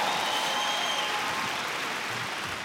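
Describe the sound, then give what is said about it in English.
An audience claps steadily in a dense, sustained wash of applause, fairly loud and even throughout, with no one speaking over it. “Give these guys a big hand.”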